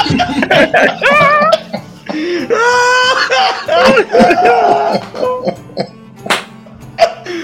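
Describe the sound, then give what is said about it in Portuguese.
A loud coughing fit from someone choking: a run of harsh, irregular coughs broken by strained, wheezy gasps and choked vocal sounds. “Quase bateu o mico engasgado.”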